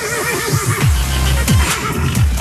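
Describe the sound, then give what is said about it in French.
A horse neighs loudly, a shrill whinny that rises and then shudders down in several quick pulses, heard on its own with no talking. “À ce genre de bruit, ça sent la réunion hippique.”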